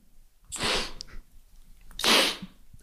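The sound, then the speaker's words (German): Nasal spray being pumped and sniffed: two sharp, breathy hissing bursts about a second and a half apart, with quiet in between and no talking. “greifst du schon beherzt nach deinem Nasenspray”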